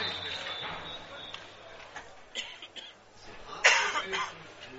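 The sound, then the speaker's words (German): A few short, harsh coughs from the stadium sound man beside the commentator at an American football game, the loudest near the end, with some breathy chuckling mixed in against a quiet background. “da drehe ich das Mikrofon runter, um in aller Ruhe zu husten, drehe es wieder auf, da, da hustet der, der Stadion ähm, Atmo Mann.”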